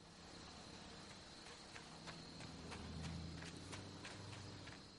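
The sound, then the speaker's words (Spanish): Quick, rhythmic footsteps of a man running away from a camper trailer on a street toward a van, a series of crisp thuds over a steady high insect-like drone and low rumbling background, with no talking. “Hank se aleja corriendo de la caravana.”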